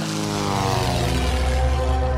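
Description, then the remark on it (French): A Yak-12 propeller surveillance plane of the Red Army takes off for the Urals, its engine droning loudly and steadily, the throbbing tone shifting slightly in pitch. No voices. “De là, il grimpe dans un Yak 12, un avion de surveillance de l'armée rouge, qui décolle pour l'Oural.”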